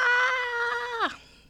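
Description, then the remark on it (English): A single sustained, shrill wail from a human voice imitating a mother's panicked scream as everyone in the house smells smoke, holding steady for about a second before dropping sharply in pitch and cutting off. Loud and alone. “That's the sound of my mom, who, bless her heart, is not necessarily the most comfortable person with the unexpected.”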